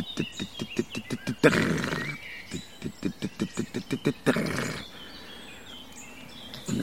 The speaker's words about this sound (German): Und spannend finde ich bei den Grauammern, dass die auch äh, teilweise vom Boden aus oder sagen wir so nah am Boden auf einem Halm sitzend singen, dass man sie gar nicht sieht.